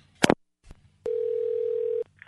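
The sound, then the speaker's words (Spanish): A brief handset clatter, then a steady, unbroken telephone dial tone as a call is being placed, holding for about a second before cutting off abruptly, followed by a faint higher-pitched electronic chirp. “Yo voy a marcar para allá.”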